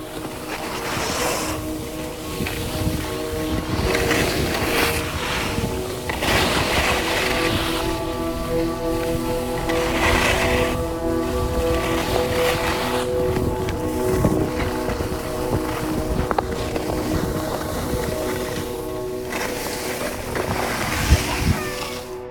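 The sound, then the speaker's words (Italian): Ski edges scrape across slightly icy snow while skiing, in a steady rhythm of harsh swooshes, one roughly every two seconds, with constant wind rush and a faint droning hum underneath. “Chiudo gli occhi e continuo a sentire il rumore delle lamine sulla neve un po' ghiacciata.”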